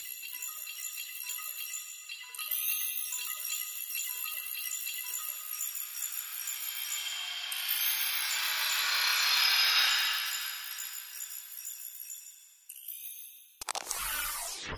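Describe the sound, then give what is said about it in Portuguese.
A printer gives off strange, strained whirring and vibrating noises, a steady high mechanical hum that swells louder midway, then cuts off before a brief final burst. No voices. “O Papai Noel de metal toca na impressora, que começa a fazer alguns ruídos estranhos e a vibrar.”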